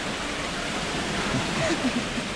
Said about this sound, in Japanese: さああパルコの上り口、うん、ここは昔からあるこの、えー、カッパの泉のとこですね水の音しますね